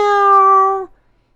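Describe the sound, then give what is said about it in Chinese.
A voice imitates a cat with a single drawn-out meow, held at a steady mid pitch for nearly a second and then cut off, followed by silence. “第二天、第三天，猫都走到白猫的身边，说：“ 喵”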